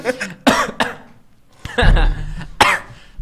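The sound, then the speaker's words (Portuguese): Several sharp, harsh coughs in quick bursts from someone who choked on a piece of cheese caught in the throat, with a strained throat-clearing rasp, mixed with breathy laughter between the fits. “Ai, me afoguei. Uhum. Entrou um queijo na né, garganta.”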